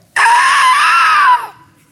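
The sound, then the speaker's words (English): A voice imitates a panicked scream: one loud, sustained, strained shriek lasting over a second, then cutting off into silence. “they're, they're screaming.”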